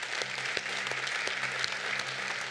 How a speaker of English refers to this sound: Praise God. Let's give him a let's give him a hand clap.